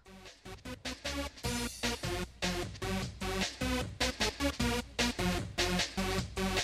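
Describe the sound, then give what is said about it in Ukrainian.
Fast, energetic happy hardcore rave track with a pounding rapid kick drum, bright synth stabs and high-pitched melodic hooks, playing loud and continuous with no talking. “Хеппі хардкор він звучить приблизно ось так.”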